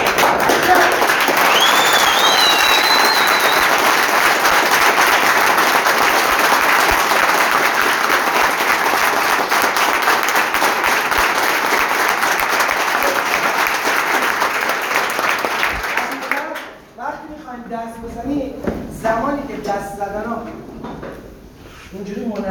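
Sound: audience applauding loudly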